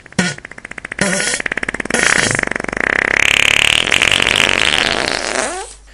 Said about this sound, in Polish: tuż przed tym, zanim uderzyła o ziemię i roztrzaskała się na kawałeczki, na co zasługiwała, wypuściła kolejnego bąka, największego ze wszystkich.